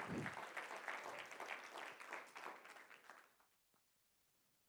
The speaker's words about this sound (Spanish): Denle el aplauso a Cristo fuerte.